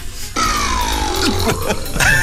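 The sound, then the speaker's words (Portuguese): A synthesized burp sound effect: one long, loud belch lasting about two seconds, with a raspy tone that slowly drops in pitch. No one talks over it. “Uh, eu tinha um arroto sintetizado aqui, que é precisamente este.”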